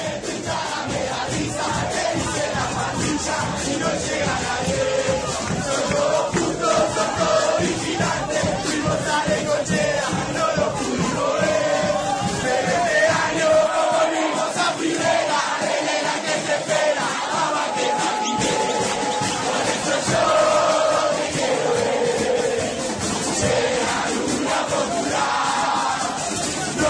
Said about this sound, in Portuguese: Esperando pelo dia em que o Vélez deixe de ser o sexto grande, vamos ouvir a torcida do Nova Chicago.